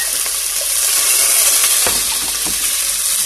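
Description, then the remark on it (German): Steady, loud sizzling of food frying in a hot pan, a dense crackling hiss throughout, with a few soft clinks and stirring knocks partway through. No one speaks. “So, ich kurz jetzt rein, wie ihr hört.”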